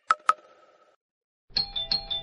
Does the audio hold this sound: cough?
no